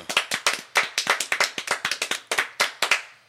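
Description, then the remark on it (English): A few people applaud themselves in an uneven, sparse round of applause, sharp hand claps in quick succession that fade out after a few seconds, with no voices. “So let's all give our, ourselves a round of applause.”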